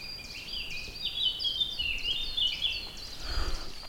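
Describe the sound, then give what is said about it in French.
A song thrush and a blackcap sing together outdoors, a steady stream of bright, varied whistles and warbling phrases over a soft background hush, with no one speaking. “Oui, toi t'es au moins la grive musicienne et la fauvette à tête noire.”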